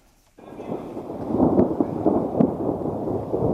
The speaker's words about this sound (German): Noch ist es der Gewitterdonner, der hier dröhnt. Bald wird es für sie der Donner der Artillerie sein. Das Feld in der Nähe von Kiew ist ein Übungsgelände für jene, die an die Front gehen.